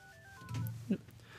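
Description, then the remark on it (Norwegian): Faint, steady telephone dialing tones hum at moderate pitch and fade away within a second, with a soft low murmur and a brief muffled bump partway through. “Vi prøvde akkurat å ringe deg.”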